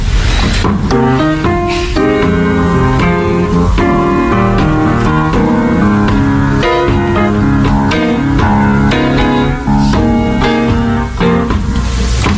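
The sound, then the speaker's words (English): A short instrumental piece, an instant composition made for the Soul Train show, plays loud, with full sustained chords over a steady groove of percussive hits and a deep bass line, with no voices. “All right, …, you did a little little instant composition for the Soul Train gang and myself, right?”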